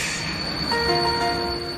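A train passes with a steady rumble, joined partway through by a sustained, high locomotive whistle that holds to the end; no distinct wheel clatter stands out and nobody speaks.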